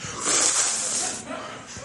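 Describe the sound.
A person makes a long, forceful inhaling hiss, imitating a vacuum cleaner such as a Dyson to illustrate the word "aspirez". The breathy, airy rush stays loud and steady for about two seconds, then trails off slightly.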